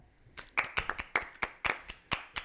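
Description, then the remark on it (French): Hands clapping in a short burst of applause to welcome a guest, a dozen or so sharp, crisp claps at a quick, slightly uneven pace, like a few people clapping together, with no talking. “On est de retour cette semaine avec un autre invité. Applaudissons.”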